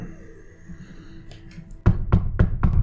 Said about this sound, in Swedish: Knackar på dörren.